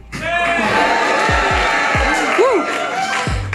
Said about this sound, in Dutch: We nemen deze eh, radar live op van op het podcastfestival van de Standaard in Oostende met voor mij een fantastisch publiek. Als je in de podcast wilt, het is nu de moment om even te roepen.